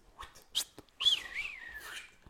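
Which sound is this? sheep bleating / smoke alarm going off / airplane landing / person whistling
person whistling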